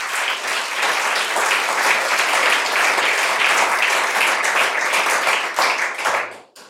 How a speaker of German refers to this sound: Wir haben einen großen Applaus gehabt, aber ich glaube, einen zweiten Applaus verdient er für diese Erfolge.